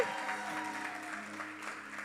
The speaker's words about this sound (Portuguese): Gente, um aplauso para nossa visitante hoje.